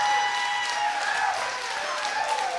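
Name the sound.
studio audience applause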